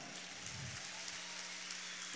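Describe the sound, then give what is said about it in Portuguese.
An audience at a church service applauding God during a Christmas sermon, a steady, dense crackle of many hands clapping that holds at an even, fairly soft level throughout, with no clear voices on top. “Aplauda ele, irmão.”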